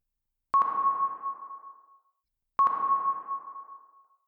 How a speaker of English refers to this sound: The sound echoed through the dome. Sonar!